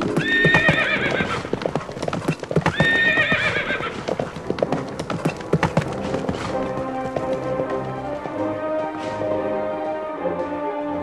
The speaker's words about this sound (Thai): อยู่ๆก็เกิดคิดถึงบ้าน จึงได้กลับมายังบ้านของเศรษฐี พร้อมด้วยม้าป่าอีกหลายสิบตัวตามมาด้วย